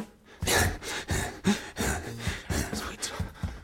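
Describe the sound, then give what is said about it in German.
A man pants heavily and rhythmically while running for training, quick loud breaths in and out about twice a second, with no talking. “Er keucht. Keuch mal.”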